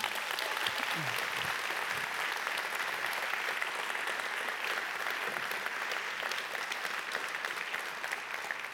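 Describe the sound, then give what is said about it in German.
Sustained applause from an audience at BMW Welt, a dense steady patter of many hands clapping that holds at an even level for the whole stretch, with a brief murmur of voices near the start. “Applaus da für die ganze BMW-Welt.”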